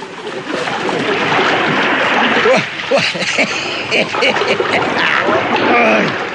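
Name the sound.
splashing in river water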